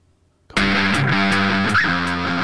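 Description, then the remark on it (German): After a brief silence, loud, heavily distorted electric guitar crashes in with driving drums and cymbal hits, a dense, fast punk rock band sound playing on without vocals. A stock track found by searching for punk in the Adobe Stock audio database. “und jetzt kommt das, was man findet, wenn man in der Adobe Stock Datenbank, Audiodatenbank nach Punk sucht.”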